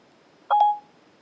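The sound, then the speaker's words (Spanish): A brief burst of electronic phone dialing tones, a quick pair of clean beeps lasting under half a second, clear against an otherwise quiet background with no talking, as Siri places a call to a restaurant in Plaza del Peso, Salamanca. “Llamando al Restaurante Río de la Plata.”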